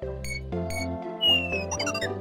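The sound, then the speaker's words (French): A van's low tire pressure alarm, set off by an underinflated tire: loud, sustained electronic tones that shift pitch in steps, with a brief rising whistle partway through, heard on its own without any talking. “C'est une alarme.”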